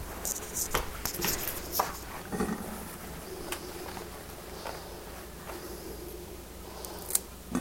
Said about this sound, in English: And I'm going to dry it in a paper towel here.